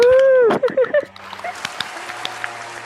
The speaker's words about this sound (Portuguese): Som de aplausos, som de aplausos, por favor.